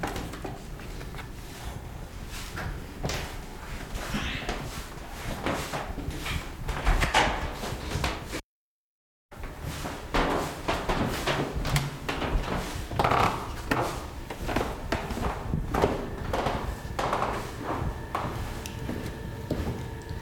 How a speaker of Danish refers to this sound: Vi bevæger os langsomt ned af de knirkende gulve hen i den afdeling, der altid har været Hotel Kong Frederik. Det er nogle meget lange, smalle gange, og der er kun værelser på den ene side.